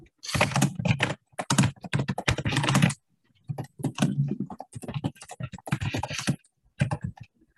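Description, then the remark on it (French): Rapid typing on a computer keyboard to write a message in an online chat, a dense stream of quick clicking keystrokes in bursts with a brief pause near the middle, fairly loud and with no talking. “Je vais essayer, d'écrire très vite.”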